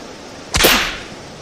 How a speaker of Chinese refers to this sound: 鞭子发出暴雷般的声响，卷住韦塞里斯的喉咙，往后猛拉。